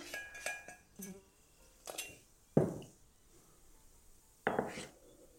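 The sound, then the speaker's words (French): A rubber spatula scrapes the remaining melted butter from the bottom of a saucepan into a tuile batter in several short strokes, with light clinks of utensil against metal between quiet pauses; no one speaks. “On n'hésite pas à prendre une maryse pour bien racler le beurre qui reste au fond de la casserole.”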